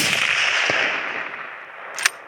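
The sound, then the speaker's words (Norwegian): Two hunting rifle gunshots fired by hunters during hunting season in the forest in Halsa municipality, Møre og Romsdal, Norway, with kindergarten children along, crack over a steady hiss of background noise, the first faint and dull, the second sharper and louder near the end. No one speaks. “Jeg er litt spent på når de skyter.”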